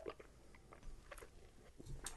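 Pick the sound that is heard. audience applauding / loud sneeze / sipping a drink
sipping a drink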